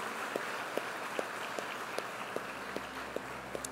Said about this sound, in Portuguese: Enquanto isso, igreja, dê uma salva de palmas para receber todos esses irmãos.